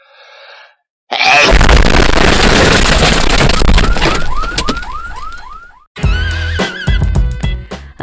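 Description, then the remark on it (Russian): A sudden loud explosion sound effect erupts and roars for several seconds, with rising whooping alarm-like chirps sounding through its fading rumble before music cuts in, opening a live broadcast on the radio station Nestandart. “Э, вот так вот э, громко мы врываемся, точнее взрываемся, можно так сказать, в этот прямой эфир на радио Нестандарт в этот четверг.”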